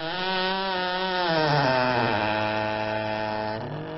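A recorded door creaks loudly in one long, unbroken groan lasting several seconds, used in a piece of musique concrète. It holds a rough, buzzing pitch that bends downward partway through, with no voices present.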